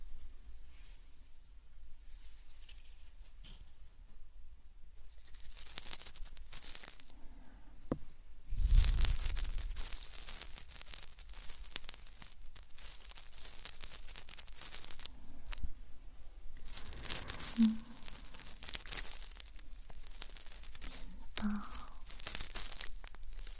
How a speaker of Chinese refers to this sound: 轻轻的刮着你的耳道，沙沙的声音